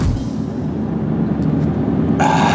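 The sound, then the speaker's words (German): Steady low rumble and road noise inside a moving car driving toward Hamburg, 56 kilometres away, a constant engine-and-tire drone filling the cabin, with a brighter hissy swell joining near the end. “56 Kilometer zeigt mein Navi hier noch an, sind es bis zur schönen Hansestadt.”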